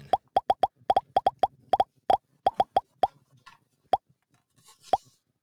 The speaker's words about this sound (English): That sound effect that I played, that was actually Kirk popping that popcorn.